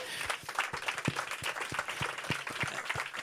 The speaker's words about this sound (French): Donc avoir l'idée du livre et trouver le contact lecteur, c'est pas rien pour lancer un bouquin, on peut l'applaudir, merci